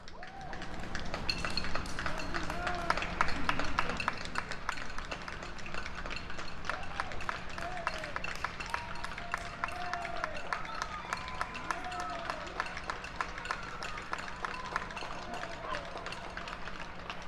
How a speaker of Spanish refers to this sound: Vamos, a escuchar un audio, vamos a hacer una pausa para ir a Francia con una grabación de Matías Aviñón y bueno, aplausos en Fresnes, en Francia.